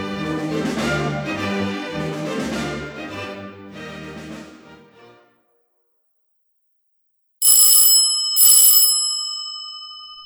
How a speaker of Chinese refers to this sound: 当亚瑟按响维亚波拉大街那幢豪华住宅的门铃时，天早已黑了下来。